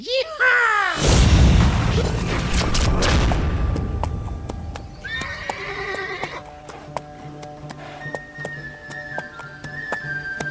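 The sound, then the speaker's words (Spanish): A horse lets out a loud whinny at the start, followed by a noisy rumbling stretch, a second shorter neigh midway, and scattered hoof clops ticking through the quieter end. “Caballito, o caballito, parad aquí.”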